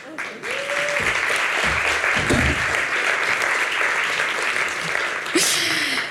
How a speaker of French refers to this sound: Pour une fois, ça s'applaudit.